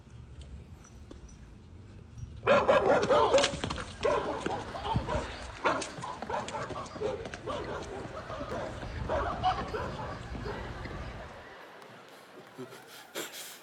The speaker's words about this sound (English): Okay, you're gonna see a, a mailman that's kind of sorting through some mail, and a guy walks up and he's got a sound on his phone like the sound of a vicious barking dog.